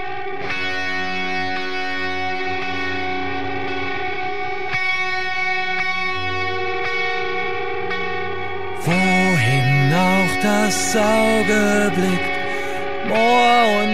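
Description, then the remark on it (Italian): Old recording of the hymn of the marsh soldiers, sung by camp prisoners who had to work the marshy land beside the camp: steady held chords for several seconds, then voices enter singing a wavering, moving melody in German, with a slightly distorted, echoing quality. “Dopo questa introduzione non manca che sentire l'inno dei soldati della palude, ovvero i detenuti che dovevano lavorare la terra paludosa limitrofa al lager.”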